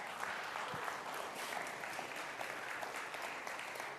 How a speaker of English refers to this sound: See, I told you, ha- half the room's clapping